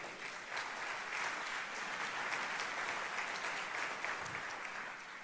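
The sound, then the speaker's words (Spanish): An audience applauds in honour of Jesus during a sermon, steadily for about five seconds, a dense, even wash of many hands clapping at once, loud and sustained without a break, with no one speaking over it. “Un aplauso a Jesús.”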